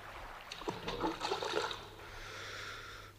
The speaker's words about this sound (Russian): Забрось их на середину реки, вот как этот камень.